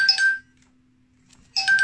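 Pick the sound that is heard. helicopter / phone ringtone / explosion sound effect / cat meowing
phone ringtone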